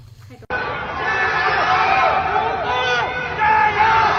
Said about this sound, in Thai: เสียงตะโกนคำว่าอู่ฮั่นเจียโย หรือแปลเป็นไทยว่าอู่ฮั่นสู้ๆบางคนตะโกนว่า จงกัวเจียโย หรือประเทศจีนสู้ๆเป็นเสียงที่ชาวเมืองอู่ฮั่นตะโกนออกมาจากบนอาคารที่พักอาศัย เพื่อให้กำลังใจชาวเมืองด้วยกันเพราะทางการประกาศปิดเมือง